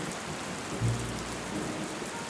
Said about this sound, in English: The rain started to fall as the strangers got cozy in the back of the cab. Oh no, Dolly, it's raining.